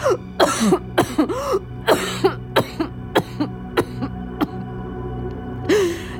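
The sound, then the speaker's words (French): A harsh fit of wet coughing and hacking, about a dozen ragged bursts in quick succession with strained, groaning gasps between them, as someone coughs and spits up blood. “tu vois, c'est son sang que je crache.”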